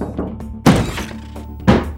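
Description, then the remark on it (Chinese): Two heavy, dull thuds about a second apart, a left shoulder slamming into a thin connecting door between rooms to force it open, each a deep impact with a brief rattle over a low steady hum. “连接门终于被撞开，我知道外面不可能没有听见那一声巨响。”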